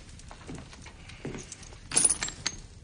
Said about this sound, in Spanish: La chica pone tres monedas de cobre sobre la mesa.